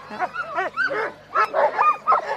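A chorus of excited sled dogs, about to be harnessed, barking, yipping and howling over one another in dense, overlapping bursts, loud, with high whining calls mixed in.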